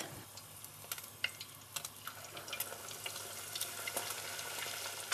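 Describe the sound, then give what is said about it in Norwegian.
Potato cakes, a Hanukkah dish, sizzle in hot frying oil, a steady hiss with scattered sharp crackles and pops throughout, no voices present. “Potetkakene ligger og freser i olja.”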